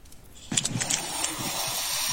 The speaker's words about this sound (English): that's the sound of the zip line going over the meadow.